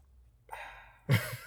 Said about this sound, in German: Ähm, wollen wir den nächsten Punkt machen oder hast du noch was zur Streckenverpflegung, wo du jetzt gerade ein Stück aus deiner Wasserflasche nimmst?